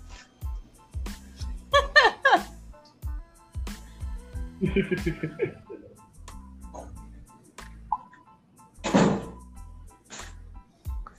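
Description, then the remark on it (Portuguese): A bedroom door is pulled shut with a soft bump, after a series of low thumps and shuffling movement, while Arabic music that a grandmother is listening to plays faintly in the background. “Deixa eu fechar aqui a porta do meu quarto que minha avó tá ouvindo música árabe.”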